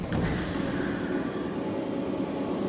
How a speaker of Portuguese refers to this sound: O trem chega na estação de Onomichi.